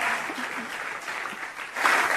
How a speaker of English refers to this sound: That's an applause line.